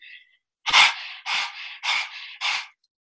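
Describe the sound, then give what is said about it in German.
A person pants rapidly through the mouth like a dog as a breathing exercise, four loud, breathy huffs in a steady rhythm, with no talking. “Oder durch den Mund schaut noch bescheuerter aus, wie so ein Hund.”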